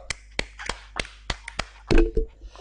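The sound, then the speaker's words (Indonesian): Roughly eight sharp hand claps in a steady, moderately quick rhythm, fairly loud, with a brief murmur of a voice near the end. “Tepuk tangan lo, tepuk tangan lo dong, tepuk tangan lo dong.”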